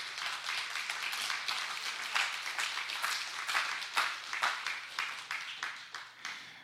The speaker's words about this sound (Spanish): Ah, palmas al Señor, hermano.